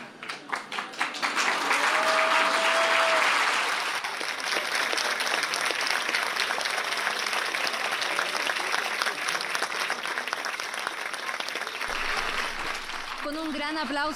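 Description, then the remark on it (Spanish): A large audience on its feet gives a long, loud standing ovation for author Hernán Rivera Letelier, with dense, steady clapping sustained for the whole stretch, a brief whistle early on and a few voices rising as it winds down. “por supuesto de pie, ¿cómo no?”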